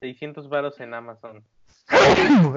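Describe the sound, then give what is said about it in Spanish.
A man talks briefly, a short pause follows, then one loud sneeze bursts out with a breathy, voiced tail that trails down in pitch. “¡Salud!”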